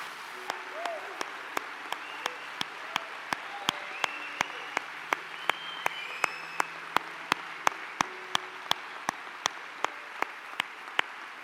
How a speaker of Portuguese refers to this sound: Vamos dar um aplauso para eles também, bem forte.